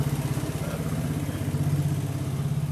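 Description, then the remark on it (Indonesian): A motorcycle engine rumbles steadily throughout with a low, pulsing drone, constant in loudness, heard during a recording in front of a house, with no one talking. “Oh iya kayak podcastnya nang ngarep rumah orang nang ruangan dan suara motor guys.”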